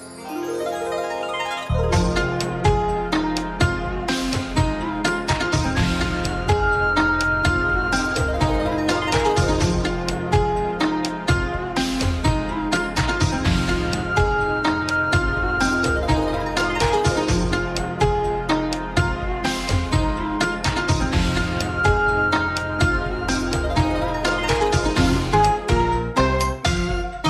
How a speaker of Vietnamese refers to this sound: bây giờ thì chúng ta sẽ cùng nhau thư giãn với những giai điệu âm nhạc của chương trình